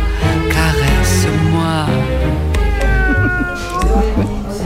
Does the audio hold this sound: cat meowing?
yes